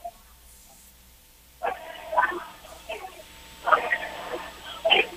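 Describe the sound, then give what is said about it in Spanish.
A crowd of about 50 anti-government protesters shouts chants in repeated loud bursts, voices rising together over a steady murmur outdoors, calling "fuera López" against President Andrés Manuel López Obrador. “Eh, no sé si te parece, los estamos escuchando algunos de los gritos, se escuchan por aquí.”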